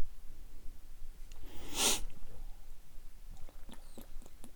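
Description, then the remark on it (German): A single loud, breathy sniff right up against the microphone, lasting about half a second, followed by a few faint clicks and soft mouth noises; otherwise quiet. “Dein Atmen fuckt mich auch richtig ab.”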